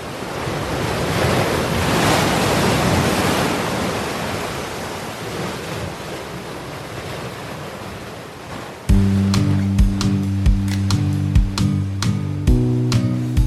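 ocean waves and surf

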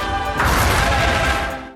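firecrackers exploding

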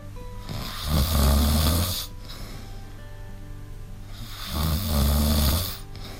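snoring

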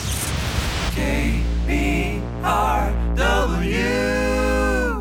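radio switched on

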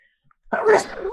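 sneeze

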